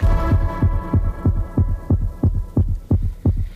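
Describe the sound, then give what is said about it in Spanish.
The heartbeat of Basque cyclist Miquel Landa, used as the rhythm of a song for a music video, thumps in a low, regular rhythm, its paired beats repeating like a drum pulse over a faint sustained hum, with no voices present. “La canción gira en torno al ritmo de su corazón.”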